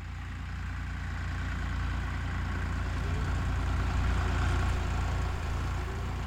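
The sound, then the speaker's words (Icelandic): A tractor engine idles steadily on a farm with a deep, continuous low rumble that holds an even level throughout, moderately loud, with no talking. “Við heyrim hérna í dráttarvél.”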